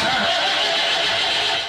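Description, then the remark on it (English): A troubled car engine sputters and grinds loudly, a rough, noisy burst that continues steadily for a moment with no one speaking. “So if your car sounds like this,”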